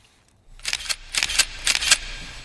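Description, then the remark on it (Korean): Three crisp camera shutter clicks, each a quick double snap, spaced evenly about half a second apart, fairly loud against a quiet background with no voices. “아, 카메라 셔터 소리군요.”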